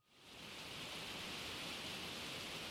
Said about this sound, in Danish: I samme øjeblik, som billedet er taget, begynder regnen at sile ned.